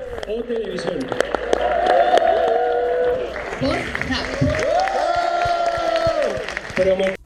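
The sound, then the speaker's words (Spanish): A noisy crowd claps and cheers, heard in a recording sent over WhatsApp, with scattered sharp claps running throughout and loud, sustained shouts and whoops rising over the din, continuous for several seconds. “Escucharon en WhatsApp el escandalazo y los aplausos, ¿no?”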